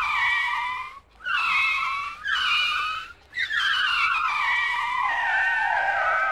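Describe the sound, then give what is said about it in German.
A car brakes hard with tires skidding in three loud, shrill squeals; the first two are short and the last stretches out, sliding slightly lower in pitch. No one speaks. “Der Hahn bremst.”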